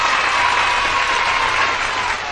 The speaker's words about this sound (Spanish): Así que pues para todas las chicas del Merol, un aplauso. Un aplauso de verdad para todos ustedes, para todas las seguidoras del Merol.